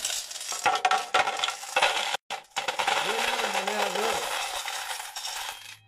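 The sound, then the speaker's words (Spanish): Gold coins clink and tumble in a steady jingling cascade, a bright rattle broken by a brief pause, then a pouring shimmer with a faint voice-like hum underneath. “llena de monedas de oro.”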